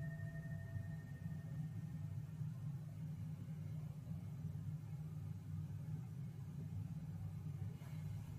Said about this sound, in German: Ich mache das mit der Stabilität noch einmal, weil eben ein Motorrad vorbeigefahren ist.